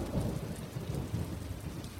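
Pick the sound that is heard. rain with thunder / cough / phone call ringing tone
rain with thunder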